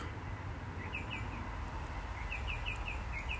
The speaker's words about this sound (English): You hear the birds? 6:21 a.m. Wednesday, the 24th of February, Melbourne, Australia.